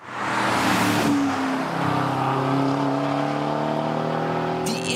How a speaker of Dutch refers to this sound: En je hoorde net de V8. En die komt waarschijnlijk van Mercedes AMG.